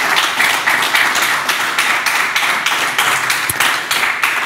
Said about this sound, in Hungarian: Egy nagy tapsot szeretnék kérni a közönségtől a jelölteknek.